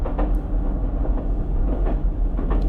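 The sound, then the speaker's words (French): A train rumbles steadily along the rails, a deep continuous low roar with faint rhythmic clacks every half second or so. No one speaks. “Alors il continue, il traverse les voitures, les soufflets, les voitures, les soufflets, les voitures, les soufflets.”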